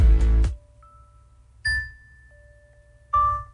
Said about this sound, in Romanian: Asta este alarma mea. Mă jur.